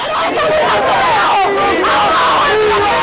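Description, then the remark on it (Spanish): A crowd of thousands of protesters in Cuba seeking change in the country, shouting together: a loud, continuous roar of overlapping voices with rising and falling chants and yells throughout, no single voice standing out. “Las voces de miles de manifestantes hicieron eco en Cuba, nación que se vio sacudida el fin de semana por el clamor de quienes buscan un cambio en ese país.”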